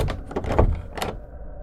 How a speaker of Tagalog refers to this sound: Nakasarado ang pinto. Nakakandado mula sa loob.